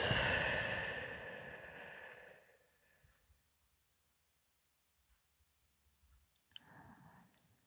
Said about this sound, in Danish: Og lige træk vejret ind, hele vejen ind igennem kroppen, og give lidt slip på en udånding. Og du kan se en lille pustelyd, når du trækker vejret ud.